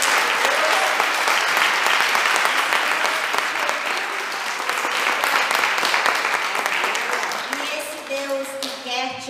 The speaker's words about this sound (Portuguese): Amém, Senhor. Aleluia. Obrigado, Jesus. Obrigado, Jesus. Dá uma salva de palma, né?